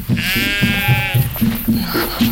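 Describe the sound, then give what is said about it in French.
Ewes bleat loudly, one long wavering bleat standing out over a steady chorus of lower, overlapping calls from the flock. “Les filles, là Mais qu'est-ce qu'ils ont ces brebis Oh, c'est pas vrai.”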